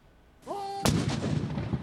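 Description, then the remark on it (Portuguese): A single loud ceremonial cannon blast, fired in the United Kingdom in front of an official royal residence in mourning for Prince Philip, booms out after a brief whistling tone, its heavy report rolling and echoing outdoors for a moment with no one speaking. “Canhões dispararam em várias cidades do país nas frentes das residências oficiais da realeza”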